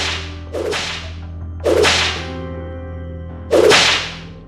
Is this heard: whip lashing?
yes